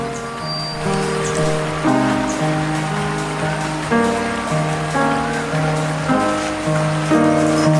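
A steady rush of flowing river water fills the background while a piano, played live on site, plays a slow, continuous melody of sustained notes. No voices are heard.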